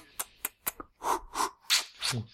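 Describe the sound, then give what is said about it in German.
A voice imitates the creaking of Gandalf's pipe: four quick clicking pops followed by four longer, raspy scraping bursts in a steady rhythm, with no actual words. “außer nur dieses Schmatzen von Gandalf und dieses Knarzen seiner Pfeife, wenn er ja.”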